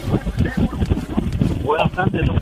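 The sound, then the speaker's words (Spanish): Steady, rumbling wind buffets the phone microphone of a caller in a car who is flying a kite at El Morro, a loud low roar that swells and dips throughout, with a voice talking faintly through the noise. “Anónimo, necesito que nos escuches por el teléfono, no por el radio, y que suba el cristal del carro, sé que está volando chiringa en el morro.”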